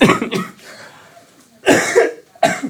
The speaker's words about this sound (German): Ich habe schrecklichen Husten und, und Kopfweh, aber es ist nicht Corona, Gott vertelle. Aber ich habe seit drei Monate.